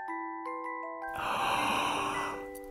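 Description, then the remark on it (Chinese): A voice imitates Mama Bear's long, breathy yawn lasting over a second, rising and then trailing off, over soft sustained background music tones. “熊妈妈打了一个哈欠，”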